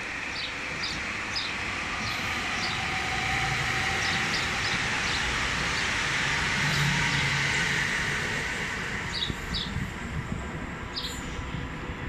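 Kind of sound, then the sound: vehicle, train passing by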